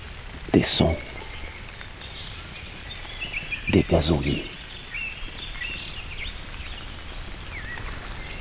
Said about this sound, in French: Et ses gouttelettes de pluie.